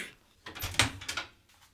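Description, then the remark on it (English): A door is opened with a sharp latch click amid a short burst of rattling and scraping, fairly quiet, with no one talking. “I'm even going to open this door and get murdered.”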